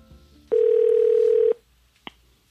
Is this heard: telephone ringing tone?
yes